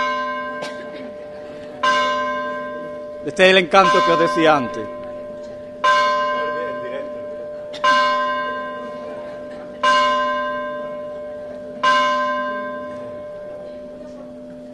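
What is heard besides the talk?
church bells ringing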